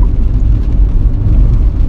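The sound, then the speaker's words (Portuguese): A car engine hums steadily at low revs, a continuous deep rumble heard from inside the vehicle with no voices over it, as the driver shifts into neutral during the journey, sets the rev needle to about 800 rpm and shifts back into fourth gear. “Mas eu faço uma, faço uma espécie de calibração durante a viagem, que é meto o carro enquanto morto, meto o ponteiro mais ou menos às 800 rotações, volto a meter a quarta e pronto”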